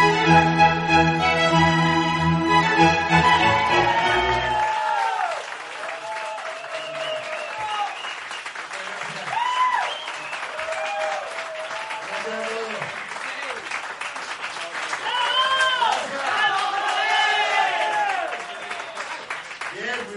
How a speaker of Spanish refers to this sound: Por favor, un aplausazo para el chamán de Siva.